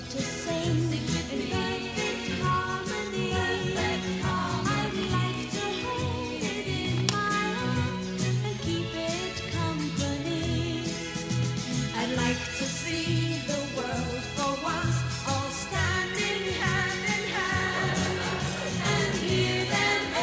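An old pop song plays steadily from a cassette tape in an old battery-powered tape player, with a full band and melodic lines carrying on at an even, fairly loud level for the whole stretch.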